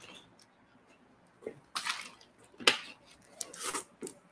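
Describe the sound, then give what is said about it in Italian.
Someone drinks water straight from a bottle: a few short sloshing, swishing bursts with a sharp click in the middle, as the liquid moves and is swallowed. No one speaks. “Se mi vede mia mamma mi sgrida perché dice che non si beve in bottiglia.”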